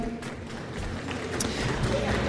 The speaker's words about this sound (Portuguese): Uma salva de palmas para a Ira.